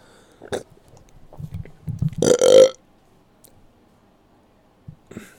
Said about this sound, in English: That's all you get. One burp. Actually, that's probably like my third burp of this podcast.